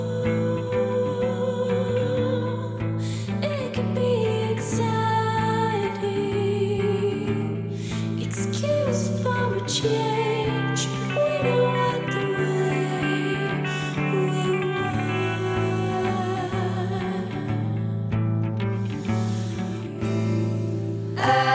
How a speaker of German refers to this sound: hören wir jetzt gleich mal den Song …